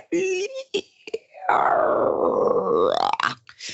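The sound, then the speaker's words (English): A voice imitates a creaking door: a few short vocal noises, then a long, strained, wavering groan that bends upward in pitch for about a second and a half, fairly loud. “and then this door made this insane noise”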